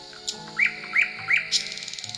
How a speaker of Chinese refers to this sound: 听到了吗？这就是夜莺的叫声。这些晚上出来活动的小鸟呢，一般呀都是在小宝宝快要睡觉的时候才出来，所以呢。我们见到它们的时候呢，都是开始准备说再见了。